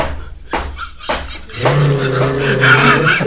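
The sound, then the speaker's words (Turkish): A voice imitates the rattling noise of a dolmuş minibus in Ankara with a rough, rolling growl, starting in short bursts and then swelling into a sustained, loud rumble held for nearly two seconds. “Arabadan böyle ses geliyor, ağızdan da rrr diye bir şey.”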